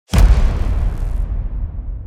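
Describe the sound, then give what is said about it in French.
A sound effect representing the Big Bang: a loud explosion bursts out suddenly, then rolls into a long, deep rumble that fades slowly. No voices accompany it. “Au tout début de l'univers, au temps de la création même du temps, le Big Bang.”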